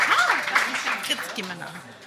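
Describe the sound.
A crowd claps in a steady, dense patter while voices talk and call out over it, the applause gradually thinning toward the end.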